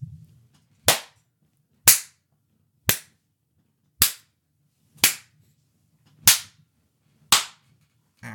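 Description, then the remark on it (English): Seven loud, sharp hand slaps land one after another at a steady pace of about one per second, mimicking the crack of wrestling chops in a Shingo Takagi versus Jeff Cobb singles match, with near silence between them. “Listen, this is this is here is a live rendition of how this match is going to sound.”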